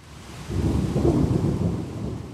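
heavy rain storm

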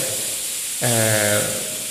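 pressure cooker whistle

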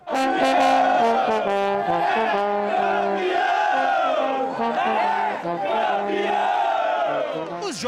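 football fans celebrating

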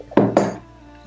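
teacup clinking

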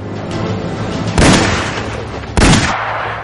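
gunshots

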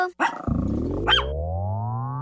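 dog barking and growling

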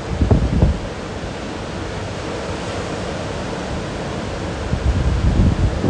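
ocean waves on shore

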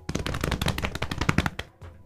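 drum roll

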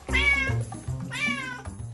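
cat meowing

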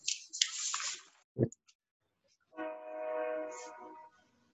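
train passing nearby

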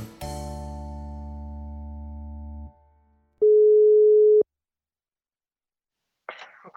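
telephone ringback tone

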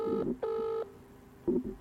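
telephone number being dialed

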